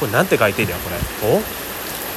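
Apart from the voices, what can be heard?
heavy rain falling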